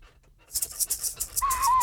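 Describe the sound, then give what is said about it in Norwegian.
A chair creaks: a short run of dry, scratchy clicks followed by a drawn-out, whining squeak, with no talking. “Klarer vi en knirking av stolen her også, eller?”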